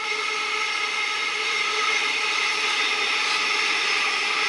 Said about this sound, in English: And another train's coming past, this is why it stops. Don't know why it's two actually.